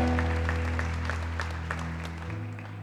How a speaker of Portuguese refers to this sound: Aplauda o Senhor, aplauda o Senhor, aplauda o Senhor.